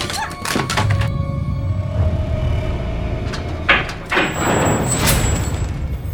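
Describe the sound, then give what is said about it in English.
A door slides open with a low rumbling scrape, then bangs shut with a solid thud, against a steady background hum. “They take us out that door.”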